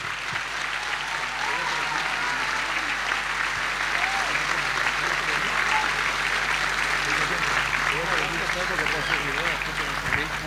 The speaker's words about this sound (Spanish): Un fuerte aplauso para estos hermanos.